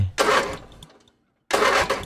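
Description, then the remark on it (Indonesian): A manual-clutch motorcycle is being kick-started: two short bursts of rough engine sputter, separated by a brief pause, with the engine failing to catch. “ya udahlah gue bawa gitu kan motor kopling ini gitu pertama kayak kok ini nggak bisa nyala nyala nih motor nih gue pikir oh mesti disela kali ya”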